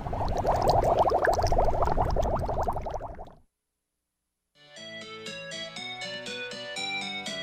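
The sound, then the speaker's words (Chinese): Liquid gurgles and bubbles in a dense, steady churn for about three seconds, then cuts off. After a short silence, music with bright, sustained tones begins. No one speaks. “我们即将抵达下个关卡——呼噜冒泡中。”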